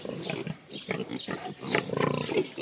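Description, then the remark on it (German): A pig grunts and snorts over and over, a quick run of short, rough, low bursts, fairly loud, with no voices. “wir haben als Infotier diese Woche schön zum Jahresanfang die Glückstiere, nämlich die Schweine.”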